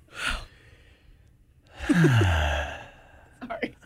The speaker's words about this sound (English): it's like heavy breathing over here.